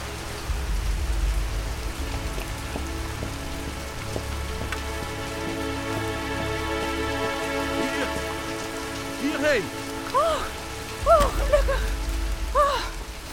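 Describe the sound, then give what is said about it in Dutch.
A sudden heavy rainstorm at a moated fort: rain pours down in a steady, dense hiss throughout, with a low rumble at the start and end, and short swooping tonal calls rising over it near the end. “Oh, wat een nood weer opeens zeg.”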